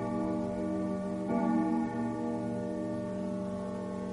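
A living room clock's chime strikes nine times with steady, resonant metallic tones that linger and overlap, one fresh strike sounding partway through, moderately loud with no voices.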